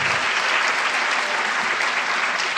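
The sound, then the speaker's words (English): A crowd claps steadily in loud, sustained applause for the YWCA at the close of an evening conversation event, a dense even wash of many hands with no voices standing out, holding at the same level throughout. “And please, one big final round of applause for the YWCA.”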